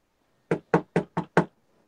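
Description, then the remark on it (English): Five firm, loud knocks on the wooden front door of a house in quick, fairly even succession, with silence before and after. “So let's let's keep knocking on the door for right this second. Uh, knock it nice and loud. Big loud knock.”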